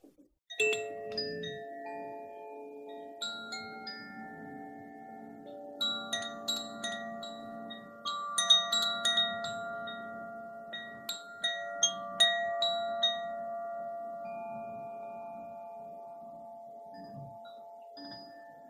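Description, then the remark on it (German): Delicate Koshi bamboo wind chimes, of the water and earth element sets, ring out in a steady stream of overlapping, sustained tones, bright strikes layering over soft lingering resonance, clear with no talking. “die sind den Elementen zugeordnet von den Herstellern von Koshi, Das ist eine Marke. Und das sind Röhre, Bambus, aus Bambus hergestellt.”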